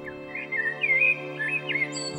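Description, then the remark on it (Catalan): A blackbird sings a short, fluting, warbling phrase of rising and falling whistled notes, fairly close and clear, over a low steady hum in the background. “La Merla li canta a l'orella i et mira de reull.”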